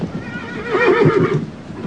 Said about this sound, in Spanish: Por mi parte, Arsen, lo que haré será espolear a mi caballo. Este parece negarse.